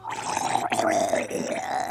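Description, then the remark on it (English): A person's voice imitates the gurgling, half-yelled howl of a woman turning into a giant wolf as she is struck in the throat: one sustained, strained, rough cry lasting about two seconds, loud, wavering slightly in pitch before trailing off. “You get her right in the throat and she lets out this like gurgling half yell howl”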